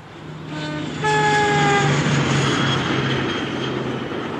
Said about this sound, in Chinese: 他们四人坐上前往拉萨的火车，火车一路呼啸。